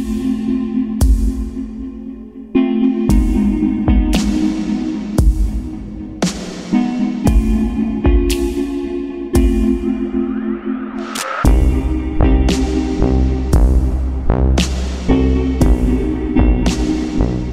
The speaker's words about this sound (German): Das war das unglaublich, unglaubliche Theme von Oxenfree. Ich finde das so genial. Oh Gott, der Soundtrack ist so fantastisch.